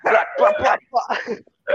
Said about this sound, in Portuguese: Assustou, foi. Desça, cachorro de merda.